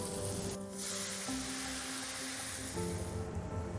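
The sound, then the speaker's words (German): Steady, loud sizzling and hissing as pasta cooking water is poured into a hot pan of prawns cooked in olive oil with toasted pepper, a dense spattering roar that holds for several seconds with a faint hum underneath and no voices. “Ja, eine Minute so die, die Gamberoni immer ein bisschen Farbe, mit ein bisschen gekocht und dann machen wir ein bisschen Wasser von Pasta Koch rein.”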